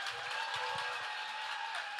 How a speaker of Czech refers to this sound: Díky moc. Byli jste naprosto fantastický publikum. Velký potlesk pro Terezu Kujovou.